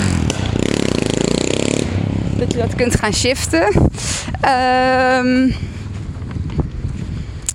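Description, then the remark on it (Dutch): A motorcycle roars past, its engine rumbling and revving in a rising droning whine with sharp popping exhaust bursts, while a person keeps talking over it. “sorry, ik was even afgeleid door die motor met zijn knalgeleidje.”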